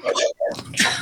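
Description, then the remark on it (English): A single loud sneeze: a short voiced build-up, a brief catch, then a sharp, hissy, breathy burst that trails off. “I'm going to sneeze.”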